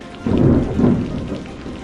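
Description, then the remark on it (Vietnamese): Deep rumbling thunder rolls in two heavy swells over a steady hiss of rain, fairly loud, with no voices present. “hàng loạt những âm thanh xuất hiện bao gồm âm thanh của sấm sét,”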